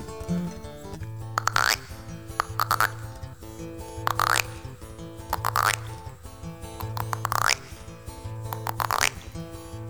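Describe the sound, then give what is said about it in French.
A steady series of springy, twangy croaks from frogs repeats about every second and a half over a low humming background, fairly loud, with no talking. “D'abord, elles ne parlent que le langage des grenouilles quand quelques-unes disent”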